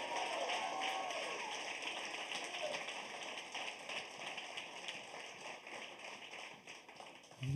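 An audience breaks into a celebratory hand clap for the Lord, a dense, steady patter of many hands that holds at an even level for several seconds, with faint voices mixed in underneath.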